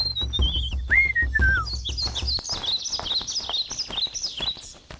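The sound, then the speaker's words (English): A lively chorus of small birds chirping and tweeting, with quick high twitters and a few clear whistled notes, over a low steady hum that drops away partway through. “The birds did as the emperor commanded.”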